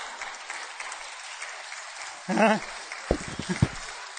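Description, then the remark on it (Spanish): An audience claps steadily in a dense, even patter for about four seconds, with a short vocal outburst and a few voices rising above the applause near the end. “Y ni aplauso dan cuando eso ustedes.”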